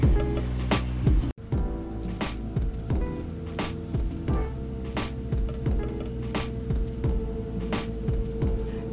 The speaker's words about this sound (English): Please excuse the, the, the street cleaner outside, but this is our only chance to record.